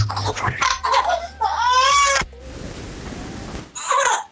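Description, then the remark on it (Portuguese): A baby cries in a few short, wavering wails, loud, with a noisy pause between the outbursts before a final brief cry. “Até a Bebê então, riu, cara. Até ela tá rindo, até ela tá rindo. Nem, nem ela te aguentou. Agora ela chora.”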